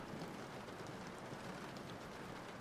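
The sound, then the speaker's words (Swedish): Steady, heavy rain pours down in a continuous, dense hiss of a storm, with a low rumbling undertone and no voices, filling the whole stretch at an even loudness. “De kommer inte kunna ta sig fram hit i det här ovädret.”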